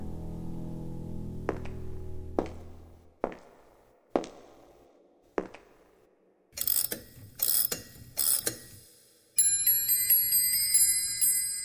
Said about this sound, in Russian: Часы. Они движимы скрытой силой. Но какой?